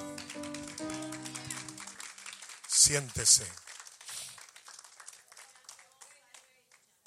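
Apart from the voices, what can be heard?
audience applauding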